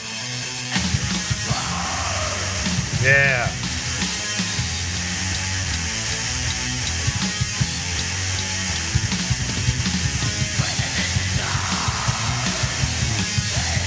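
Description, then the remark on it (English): Black metal music with harsh screamed vocals, a loud, dense and continuous wall of distorted guitars and drums that fills the whole stretch, with one short spoken word near the start. “I think the further you get into uh, this genre with like just with the uh, screaming and uh, growling and what have you, like a lot of it can sound very”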